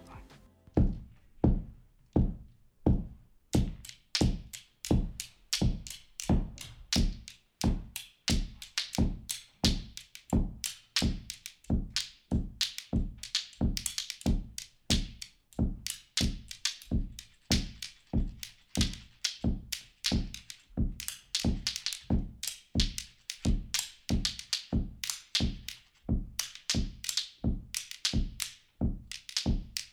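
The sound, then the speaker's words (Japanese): Stones are struck and tapped together in a steady, rapid series of sharp clicks and knocks, sometimes in quick double hits, fairly loud with no voices; a stone piece made by students, after Christian Orff's work 'Stones'. “だから実際に学生の皆さんに石の曲っていうのを作っていただいたんで早速ちょっといくつか聞いてみましょうか。”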